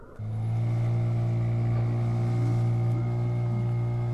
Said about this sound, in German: Das Boot, mit dem ich über den See fahre, hat ein Leck. Der Bootsführer schöpft fleißig Wasser.